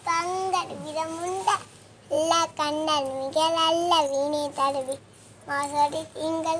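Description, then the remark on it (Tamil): A young girl from VM Chathiram in Tirunelveli district sings a Swami devotional song alone in a high, clear voice, holding long melodic notes in phrases separated by brief pauses, moderately loud. “பார்த்தீங்களா இந்த குழந்தை ஒரு பாடல் சுவாமி பாடல் பாடியிருக்கு ஆனால் இந்த குழந்தை எங்கே இருக்குது அப்படி பார்த்தீங்கன்னா திருநெல்வேலி மாவட்டத்தில் விஎம் சத்திரத்தில் இருக்குது”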